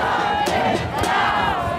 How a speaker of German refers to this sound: Der Vormittag in der Innenstadt von San Francisco. Demonstrierende versuchen APEC-Teilnehmern den Weg zum Kongresszentrum zu versperren.